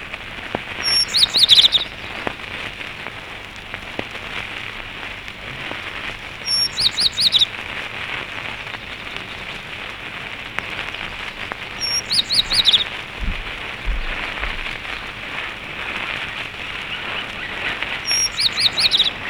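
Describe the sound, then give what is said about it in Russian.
Tristram's bunting singing four short, very high, thin phrases, each repeated about every five seconds over a steady, rain-like hiss. No voices. “А теперь послушаем песню таежной овсянки.”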